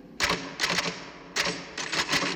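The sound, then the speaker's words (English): Rapid typing on keys by a person working, fairly loud, with clustered clicks in short bursts separated by brief pauses. No one is talking. “Whenever I'm in here, you hear me typing.”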